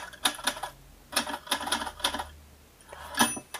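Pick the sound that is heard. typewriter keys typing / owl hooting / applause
typewriter keys typing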